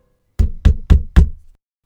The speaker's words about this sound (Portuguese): Era meia-noite quando ouviu uma batida na porta.